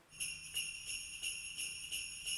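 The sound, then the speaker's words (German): A bright metallic jingling of a bunch of keys shaken to sound like sleigh bells for a Christmas song, pulsing in a steady rhythm of about three shakes per second, fairly quiet, with no voices. “Ich glaube, da sitzt einer mit dem Schlüsselbund und macht Schlittenglocken.”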